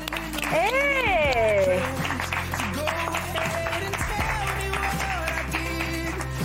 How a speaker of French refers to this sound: C'était il y a deux ans, il a bien changé, vous allez le voir, et on l'accueille tout de suite. Ah, on peut l'applaudir, ouais.